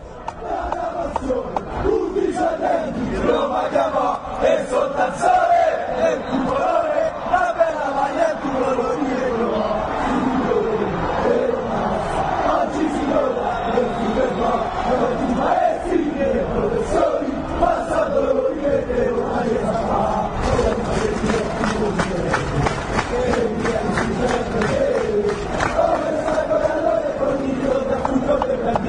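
A large crowd of Roma football fans chants and roars continuously in a stadium in Rome, a dense, loud wall of voices with rhythmic surges and scattered shouts over about half a minute.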